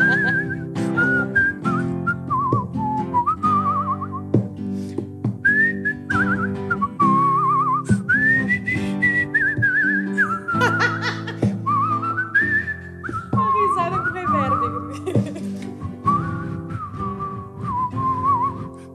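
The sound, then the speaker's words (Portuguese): A man whistles a warbling, bird-like melody full of trills and quick pitch slides, sustained over a steady instrumental backing for the whole stretch. “O viu dele é tipo um passarinho mesmo, né?”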